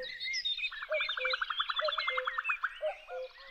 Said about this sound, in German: Jetzt, im Frühling, sind sie besonders fleißig am Singen. Das große Vogelorchester ist in voller Besetzung.